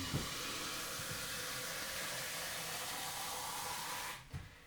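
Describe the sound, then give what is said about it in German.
A coffee machine standing on a cupboard, somewhat farther from the microphone, brews coffee with a steady, loud hissing whoosh of steam and pumping noise, continuous for about four seconds before cutting off abruptly, leaving a brief quieter tail. “Hier mache ich mir jetzt den Kaffee.”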